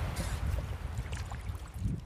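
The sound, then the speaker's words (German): Water laps and splashes steadily around a stand-up paddleboard out on the Baltic Sea, a continuous sloshing over a low, rumbling wash, with small bright splashes scattered throughout and no voices. “wir sind jetzt mitten auf dem Wasser. Ähm, ich glaube, Premiere bei Wellenrauschen, das erste Interview mitten auf der Ostsee”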